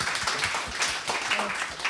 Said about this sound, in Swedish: Oj vad duktigt. En applåd för det tycker jag. Fantastiskt.